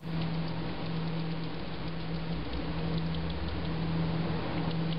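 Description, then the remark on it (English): A free-tailed bat colony vocalizing: a dense, continuous wash of overlapping chittering that sounds almost like steady rain, holding at an even level for several seconds over a faint low hum. “I know you want to know what a free tail bat sounds like.”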